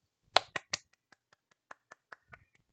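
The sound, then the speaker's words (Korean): Sharp hand claps from the hosts of the radio show Yorijori: three loud quick claps, then a string of lighter, sparser claps trailing off at an uneven pace. No one speaks. “박수 한번 치고 갈까요?”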